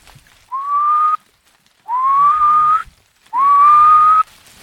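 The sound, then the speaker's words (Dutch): Three whistled imitations of a little owl's territorial or courtship call, the call most often heard and made only by the male, each a rising, drawn-out whistle about a second long, repeated with short pauses, clear with no talking. “Ehm, ja, de roep die je het meeste hoort, dat is wat, wat dan de balsroep of de territoriumroep heet.”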